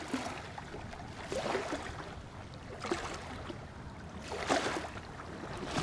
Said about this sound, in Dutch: er zijn eh, rotsblokken die normaal toch echt wel flink onder water komen te staan, maar nu niet. Maar het klotst toch nog aardig zo door.